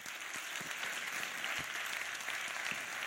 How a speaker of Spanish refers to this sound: Otro aplauso para ellos.